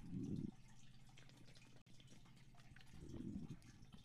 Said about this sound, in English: See, that was a double whammy. That was an ad cut and a water break all in one.